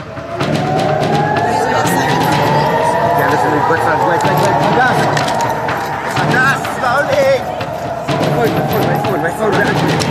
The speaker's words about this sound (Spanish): Mientras la gente buscaba refugio, comenzaron a escucharse las primeras explosiones en cielo israelí. Esa risa nerviosa fue porque se saben protegidos por su cúpula de hierro.